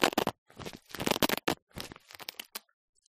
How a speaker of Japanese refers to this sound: そして、ベルクロで固定させる。これ、音出すわよ。